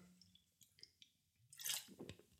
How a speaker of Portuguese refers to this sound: Só, agora dar aqui um golo d'água.